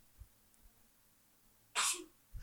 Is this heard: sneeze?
yes